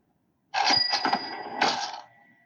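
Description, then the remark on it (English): Pachinko machine sound effect: a loud burst of metallic clattering and jangling with a sustained bell-like ring, surging again in a second burst before fading out after about two seconds. “it's a pachinko machine.”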